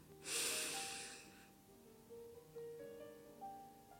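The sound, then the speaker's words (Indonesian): A single deep, airy breath drawn in during a guided bedtime relaxation exercise lasts about a second, then fades into soft, sustained ambient tones with no talking. “Tarik nafas yang dalam.”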